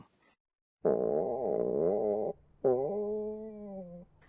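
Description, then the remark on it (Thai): Two long, loud stomach growls from hunger, the first wobbling and gurgling in pitch for over a second, then a short pause before a steadier, droning second rumble, heard alone. “อุ๊ย นั่นไม่ใช่เสียงท้องดิฉันร้องนะคะ”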